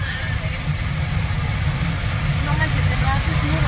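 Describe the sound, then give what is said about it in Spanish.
A motorcycle engine runs steadily throughout, a loud, continuous low rumble with an even idling drone and no breaks or revving changes. The motorcycle is giving a bride a ride to her wedding. “Le van a dar raid a la novia en moto porque si no, no llega.”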